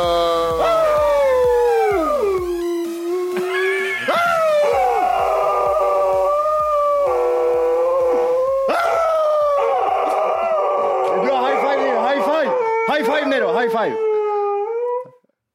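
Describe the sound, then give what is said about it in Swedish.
The speaker's dog, Nero, howls loudly and continuously along with intro music, its drawn-out wavering howls rising and falling over a bed of music, with a few yips mixed in. “Eh, första gången eh, min, min, min hund är med i introt.”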